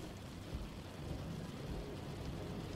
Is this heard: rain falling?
yes